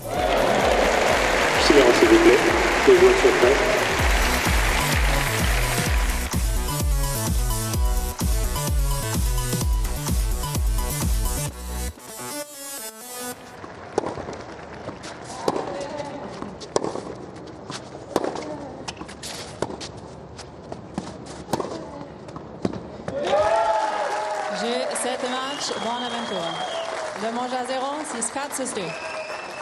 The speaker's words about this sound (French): Des applaudissements, du noir, du jaune, du rouge dans les tribunes et un cri de joie, celui d'Isaline Bonaventure, très émue de s'être qualifiée pour la toute première fois en dix ans de carrière pour le tableau final de Roland Garros.